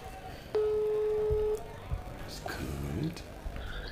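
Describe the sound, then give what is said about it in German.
A single steady ringback tone on an outgoing phone call sounds loudly for about a second, followed by a pause and then someone talking over a faint line. “Ich hoffe, man hört hörte klingeln.”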